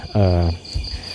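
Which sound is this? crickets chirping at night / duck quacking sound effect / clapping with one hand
crickets chirping at night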